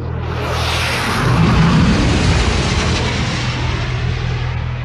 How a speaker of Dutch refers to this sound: Een vertoon van macht met een laagvliegende F-16. Ja, als je geen pijltoren op hebt, dan klinkt het best wel van... oké, ik glijp nu naar mijn oren, want ik heb het gevoel dat mijn hoofd bijna aan elkaar eh, ploft.